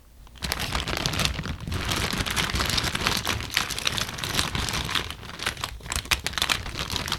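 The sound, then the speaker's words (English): Continuous crinkling and rustling of a plastic bag as it is taken out of a film fridge, with small crackles and soft knocks as a film box and small film cassette are handled, no voices. “She is rustling in the film fridge and removing the bag.”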